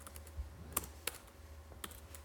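Typing on a laptop keyboard: a few crisp, irregular key clicks close by, spaced unevenly over a quiet background with a faint low hum.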